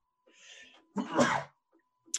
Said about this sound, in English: COVID sneeze.